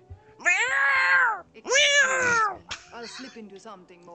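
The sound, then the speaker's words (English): Two long, loud, wavering yowls of fighting cats follow one another closely, like an angry caterwaul, then trail off into shorter, quieter mewling sounds. “or even just like in her apartment, just lots of random cat noises.”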